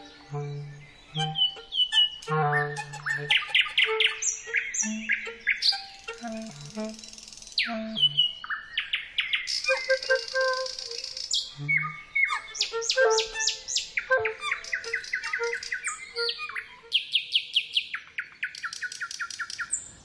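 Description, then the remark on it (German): A nightingale sings loud in an open-air recording with a clarinet, pouring out varied phrases of rapid trills, sharp whistles and chirps, with brief low sustained tones woven among the song, continuing for the whole stretch. “Ein Stell dich ein eines Musikers mit der Natur ein Open Air mit Nachtigall und Klarinette erschien bei Argon Hörbuch.”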